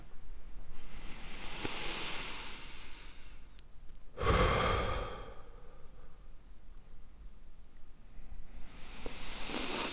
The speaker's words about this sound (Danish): Vil du øh, lukke øjnene og tage et par dybe vejrtrækninger? Ja.